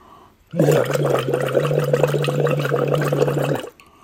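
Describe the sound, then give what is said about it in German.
Loud bubbling as someone blows through a bubble tube into water as a vocal cord exercise, a steady hummed tone running underneath, sustained for about three seconds before stopping abruptly. “Ich puste gerade mein Blubberrohr.”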